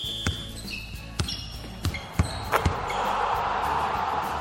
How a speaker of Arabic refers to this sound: مباراة كرة سلة